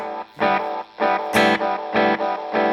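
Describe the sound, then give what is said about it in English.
An electric guitar played through a delay pedal set fully wet, its notes smeared into repeating echoes that pulse in bright, sustained bursts about every half second, with no voices. “But you can get all dr- all wet if you want.”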